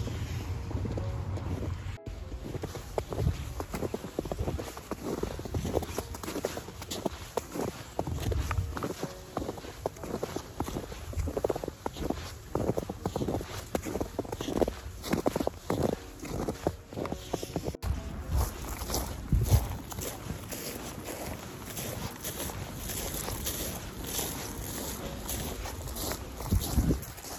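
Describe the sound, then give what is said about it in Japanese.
Steady footsteps crunching over frozen grass lightly dusted with snow, like stepping on frost, a brittle, crisp crackle with each step in an uneven rhythm, accompanied by soft wind rumble and no voices. “まあ、雪の音というよりもちょっとうっすら雪がかぶった草が凍ってるんですね凍った草を踏みしめる音まあ霜踏んでるような感覚ですね”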